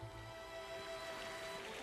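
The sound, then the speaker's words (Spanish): A soft, steady wash of sea waves rolls on without pause, heard alone with no voices, at a low, even level with a faint hum underneath. “El sonido, el sonido del mar.”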